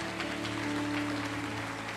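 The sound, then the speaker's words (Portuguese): An audience applauds God during a sermon on Acts 16, a dense crackle of many hands clapping at an even level for the whole two seconds, with a low sustained keyboard chord droning underneath. No one speaks. “Aplaude a Deus por esse anjo que apareceu lá.”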